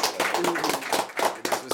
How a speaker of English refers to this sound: everybody clap it up.